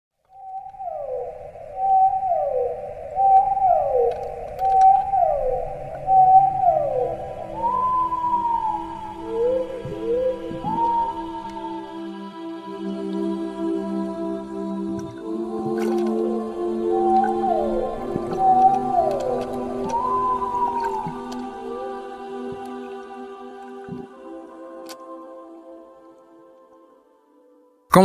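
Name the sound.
whale vocalizations underwater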